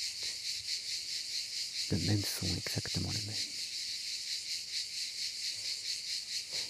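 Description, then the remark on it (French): A dense, steady chorus of cicadas buzzes without a break, shrill and pulsing slightly throughout. A man speaks briefly partway through, his voice sitting under the constant insect drone. “Ici, ce sont les cigales.”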